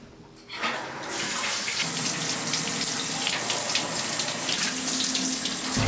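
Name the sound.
shower water running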